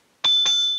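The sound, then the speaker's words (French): Two quick bright dings of a guest-arrival bell in succession, rung to welcome a guest, clear, with a sustained metallic ring lingering after the second strike; no talking. “C'est ma sonnette invitée.”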